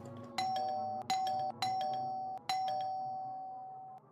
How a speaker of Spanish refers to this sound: Y luego suena el timbre.